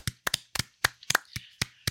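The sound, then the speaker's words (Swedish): A short burst of applause for the winner of a vote: about a dozen sharp, crisp claps at an uneven rhythm over two seconds, sounding like only a few people clapping, with no voices. “Det är du värd en liten applåd”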